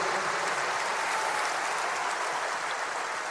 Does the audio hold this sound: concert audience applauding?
yes